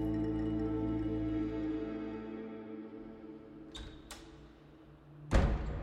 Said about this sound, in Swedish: Dörren slår igen bakom mig med en dov duns.